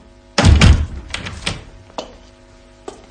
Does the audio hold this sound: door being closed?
yes